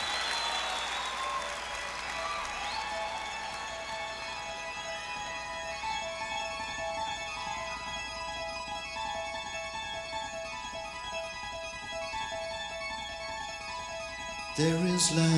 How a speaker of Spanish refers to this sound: Esta que viene es la última de la jornada, una para irnos volando con …. … suena ahora en BLN Radio